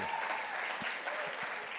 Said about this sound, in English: oh, thank you so much. It's like three people clapped.